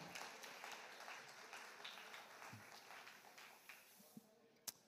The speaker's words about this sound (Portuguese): Uma salva de palmas com muito carinho.